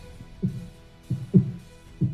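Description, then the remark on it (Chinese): A low, thudding heartbeat repeats in a steady lub-dub rhythm, three beats with a double pulse each, deep and muffled, with no voices. “全是这种心跳的声音了。”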